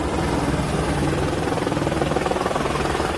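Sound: helicopter flying overhead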